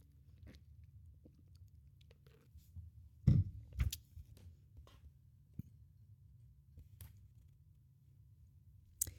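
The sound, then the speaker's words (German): Someone takes a quick drink: quiet sips and swallows, a louder clunk or gulp partway through, and scattered small clicks against a low background hum. No one talks. “Sorry, jetzt muss ich wirklich auch schnell trinken.”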